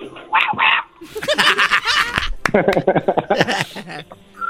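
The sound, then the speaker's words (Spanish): A person imitates a tiny dog with two quick, high-pitched yips, then excited voices and laughter-like talk follow for the rest of the moment. “¿Puedes hacer el ruido de un perro más chiquito todavía?”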